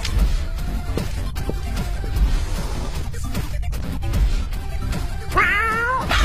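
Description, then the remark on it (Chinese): A cat meows loudly toward the end, in a few strained, wavering, high-pitched cries, over a constant layer of busy, rumbling background noise that fills the whole clip. “但一点可以肯定，制作人很讨厌喵，”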